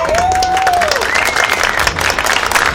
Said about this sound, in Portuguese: Ah, palmas! Alô, aplausos, aplausos!